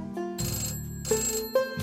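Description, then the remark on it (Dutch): A telephone ringtone plays a short, repeating electronic melody in a few quick bursts, clear and close, with no one speaking. “Missia slaat zich op met Lautrec, die een portret van haar wil tekenen en helemaal gek wordt van de telefoontjes van Alfred.”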